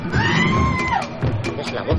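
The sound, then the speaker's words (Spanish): A single loud, high-pitched scream rings out in a forest during a tiger hunt, held for under a second before dropping off sharply, followed by a busy wash of overlapping voices and commotion. “De pronto se oyó un grito.”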